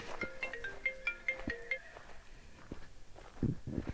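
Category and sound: signal or alarm, mobile phone ringing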